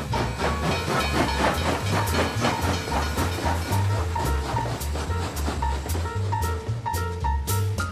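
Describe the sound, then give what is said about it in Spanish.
A steam train chugs along steadily with a constant loud hiss and rhythmic clatter for several seconds, with low tonal notes running underneath. “O sea, que hoy hemos vuelto a coger el tren. Pero de vapor, ¿eh?”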